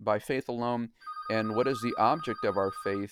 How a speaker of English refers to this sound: sorry my phone's ringing i'm going to let it ring here just for a second